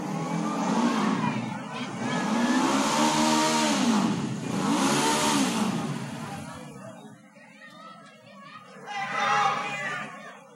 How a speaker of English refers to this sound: And here a motor.